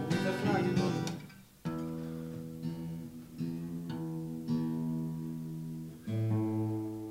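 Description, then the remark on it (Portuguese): Acoustic guitars are tuned by ear: single plucked notes and strummed strings ring out one after another, each left to sustain and decay, clear with no talking. “Você está afinado os violões aqui, mas.”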